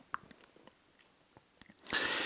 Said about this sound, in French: ils continue de grignoter, la soirée se déroule.